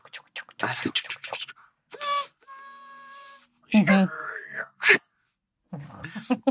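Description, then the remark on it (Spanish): A person vocally mimics a train whistle, with a sustained, steady tonal hoot in the middle, surrounded by bursts of breathy, wailing vocal noises and short speech-like sounds. “Primero, no sé, suena el, el silbato.”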